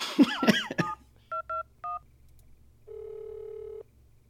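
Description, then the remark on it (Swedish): A telephone number being dialed on an old Bakelite telephone: three short, clear touch-tone beeps in quick succession, then a steady, flat tone for about a second. A brief vocal sound comes just before the beeps. “Telefonen? Ja, är det, alltså vi slår in...”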